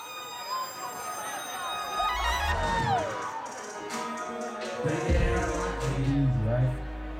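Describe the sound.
A large crowd of students in a concert hall chants the performer's name in unison as he bursts onto stage, voices rising and falling in a loud, rhythmic call, with cheering and a deep rumbling bass swelling underneath.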